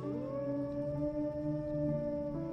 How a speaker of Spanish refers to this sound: Los lobos aullaron aquella noche